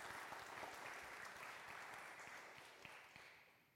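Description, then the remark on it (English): An audience breaks into steady applause in joy at two newborn babies, a dense wash of many hands clapping at once that holds loud and even before easing slightly toward the end, with no voices standing out. “Yes, we can clap too.”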